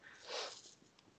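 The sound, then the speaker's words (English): A person imitates a dog sniffing with a quick run of breathy, airy nasal inhales, strongest early on and then tapering into a few shorter sniffs, fairly quiet. “she'll sometimes like be sniffing and if she hears something suspicious she'll like it'll either start growling or whining or whatever”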